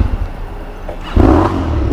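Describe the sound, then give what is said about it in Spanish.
A motorcycle engine rumbles low, then lurches abruptly into a loud, rough shudder as it stalls violently during the Gentleman's Ride in Barcelona, the harsh clattering rumble continuing to the end. “la, ha calado y es muy violenta calándose.”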